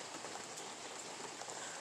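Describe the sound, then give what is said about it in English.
Steady rain patters on a hard surface, a dense, even hiss of countless droplets with faint individual taps, continuous with no voices. “And the sound of the rain was just really pretty and really calming, and I wanted to share with you guys.”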